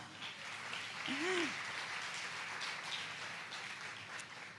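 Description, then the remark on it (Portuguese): A crowd applauds the Lord steadily, a dense wash of clapping that holds at an even level throughout, with a brief voice-like cry rising and falling near the start. “Agora sim aplauda o Senhor.”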